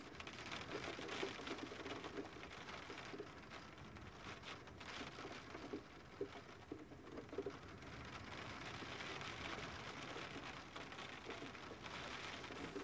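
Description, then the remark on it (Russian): Steady rain starting to fall on a trail by a pond, pattering on surfaces in a dense, even hiss, with birds cooing softly in the background and no voices. “начинается дождь.”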